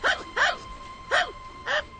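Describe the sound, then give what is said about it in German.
A dog barks four times in short, sharp, clear yaps with uneven gaps between them, with no talking underneath. “Tut mir leid, aber Hunde sind hier verboten.”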